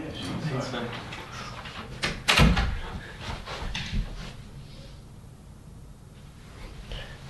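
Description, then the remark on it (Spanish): A bedroom door bumps and clatters once, fairly loud, amid a busy indoor background of low rumble and faint voices. “en la aspiradora en la puerta del cuarto.”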